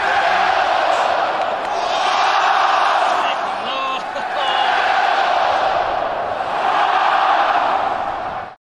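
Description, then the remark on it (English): A stadium crowd of thirty thousand people chants and roars in unison, a loud, dense wall of voices that holds steady for several seconds with brief dips and swells between shouts. “yeah, no, it, there was thirty thousand people doing that.”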